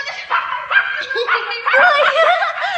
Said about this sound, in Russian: Кто-то скребется. За дверью кто-то есть. А, это, наверное, воры. Ура, ура, ура, ура, ура. Это собака.